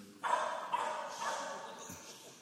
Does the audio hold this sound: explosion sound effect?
no